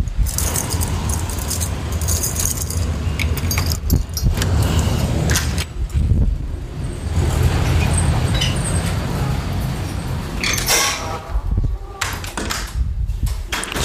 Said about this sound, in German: Ich bin sowieso gleich im Büro. Kurz die Tür aufsperren.